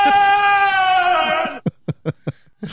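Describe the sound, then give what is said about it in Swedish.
A baby monitor transmits a baby's crying: one long, high, wavering wail, then four or five short, choppy sobs in a quick, uneven rhythm, sounding thin through the monitor speaker. “Nu är det en babymonitor som skriker och...”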